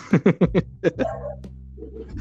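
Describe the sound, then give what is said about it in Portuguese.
A neighbour's dog barks angrily after being told to be quiet, in a quick volley of about four sharp barks, then two more, loud, before trailing off into a lower rumble. “Esse cachorro ele fica mais brabo ainda quando manda ele calar a boca.”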